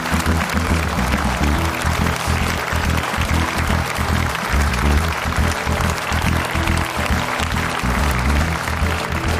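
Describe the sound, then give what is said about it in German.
Sustained audience applause welcoming former Bundesliga footballer Thorsten Frings onto a show, dense clapping and cheering at a steady, fairly loud level throughout, with no pauses and no clear speech. “Applaus”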